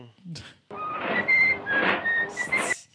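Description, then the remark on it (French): Mickey whistles a cheerful tune in a Disney clip, a string of short and sustained notes over a dense, crackly, noisy background, preceded by a brief knock, ending abruptly after about two seconds. “fait que, là, c'était Mickey qui sifflait, puis tout, puis là, un takedown de Disney.”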